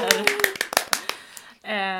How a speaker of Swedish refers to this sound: Yay, applåder!